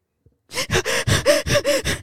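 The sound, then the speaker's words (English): A voice imitates loud, heavy breathing: a quick, steady run of about seven harsh, gasping breaths, forceful, with no talking. “like Let, let's face it, you're breathing really heavy.”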